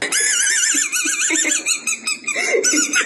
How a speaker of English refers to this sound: it would squeak. He swallowed the small toy by mistake